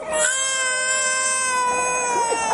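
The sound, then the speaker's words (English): A baby who has just started breathing again wails in one long, steady, high-pitched cry that holds its tone for a couple of seconds before wavering slightly at the end. No talking is heard. “begins to wail”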